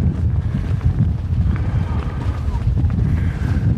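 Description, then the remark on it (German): Steady, heavy wind buffets a microphone fitted with a furry windscreen, a constant low rumble that roars and gusts throughout with no break, loud. “Ich hoffe, ihr könnt das mit dem Wind hören und der Windpuschel reicht, also ihr könnt es mit dem Wind die Aufnahme gut verstehen und der Windpuschel reicht aus, um das zu filtern.”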